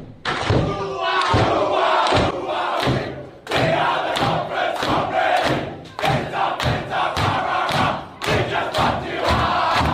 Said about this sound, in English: And I know what you're thinking. That doesn't sound like any Canberra song. it doesn't sound like a song. It's just it's just yelling, and that's what it is because they made this up.